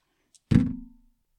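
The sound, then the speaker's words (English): Dice are rolled onto a table and come up eight: a faint tick, then a single solid clattering thud that rattles briefly and dies away within half a second. No one speaks. “Uh, it's an eight on the dice.”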